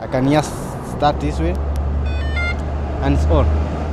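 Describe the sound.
A short electronic beeping chime, a quick run of high stepped tones, sounds from a vehicle over a steady low hum, with people talking nearby before and after.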